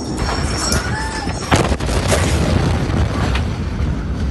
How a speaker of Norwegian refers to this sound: 4. august i fjor eksploderte 2700 tonn høyt eksplosivt materiale i Beiruts havn. Over 200 mennesker ble drept. 6500 andre ble skadd. Halve Beirut ble lagt ruiner.